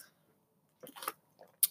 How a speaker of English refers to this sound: Again, I'm taking too many sips of water. Jeez, I'm just going to throw it over there.